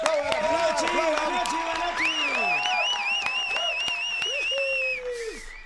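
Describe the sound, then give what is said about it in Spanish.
A radio studio audience on XFM claps and cheers steadily for a guest singer, with sharp whistles and shouts mixed in, a lively, fairly loud burst of approval that fades slightly near the end. “Aplaudan todos, por favor”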